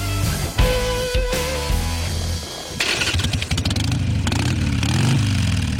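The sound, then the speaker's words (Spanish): A loud motorcycle engine starts up and revs repeatedly, its pitch climbing and dropping in rough surges over several seconds, with no voices. “Las motos.”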